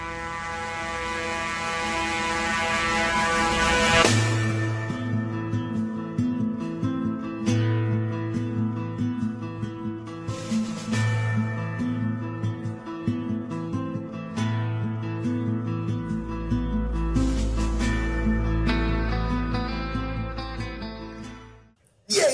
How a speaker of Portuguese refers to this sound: Solta a vinheta.